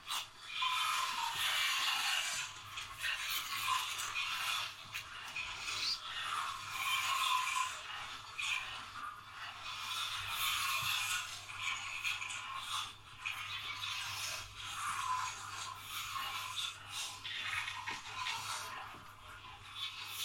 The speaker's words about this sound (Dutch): abstracte versie van het schillen van een appel.